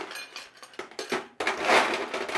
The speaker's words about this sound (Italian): Bene, allora il drink è fondamentalmente un, uh, proprio un daiquiri classico, quindi andiamo a mettere un po' di ghiaccio nella coppa